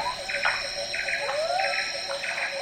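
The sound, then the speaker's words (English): A frog chorus at dusk in a swamp on the island of Borneo, recorded by Australian sound recordist Mark Anderson, with short pulsed calls repeating about once a second over a steady, shrill insect-like drone and a dense wash of background croaks. “Dusk by the Frog Pond captures the chorus in a swamp on the island of Borneo, recorded by Australian photographer and sound recordist Mark Anderson.”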